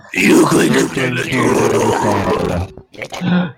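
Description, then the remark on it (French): A voice imitates a little pig's grunting, loud, with a long rough run of snorting grunts, a brief pause, then one more short grunt. “Merci pour le petit cochon.”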